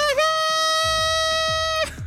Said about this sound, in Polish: Trąbka w tle.